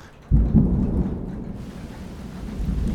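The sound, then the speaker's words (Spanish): A deep, rumbling thunderclap breaks in suddenly and rolls on, then gives way to a steady, loud hiss of heavy rain pouring down, with no voices. “Entonces empezó a llover.”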